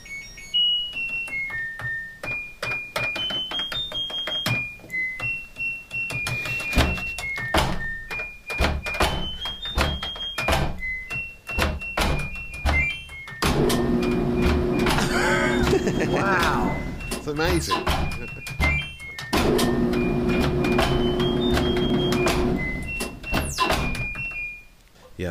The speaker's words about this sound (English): yeah, so they're just like opening the doors, closing the doors, turning on the dryer, pressing the buttons to create music.